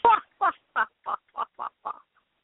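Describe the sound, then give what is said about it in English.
A pet bird named Ponybird gives seven rapid, harsh chirping calls in a steady rhythm, gradually fading in loudness, with nothing else audible. “Yes, tweet.”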